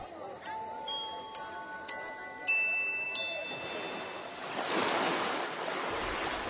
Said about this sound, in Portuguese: De repente. Uma grande tempestade agitou o lago de tal maneira que as ondas começaram a cobrir o barco.